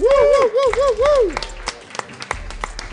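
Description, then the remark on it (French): A crowd cheers and applauds as a guest is welcomed, with high wavering whoops and shouts over the first second, then scattered, uneven clapping that carries on to the end at a steady, lively level. “Oh, et la foule ne s'en peut plus ici.”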